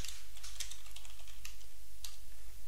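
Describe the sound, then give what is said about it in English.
Someone types a post for their Facebook wall on a computer keyboard, a quick, irregular run of light key clicks over a low steady hum, with no talking. “In fact, I like that so much, I'm going to put it on my Facebook wall.”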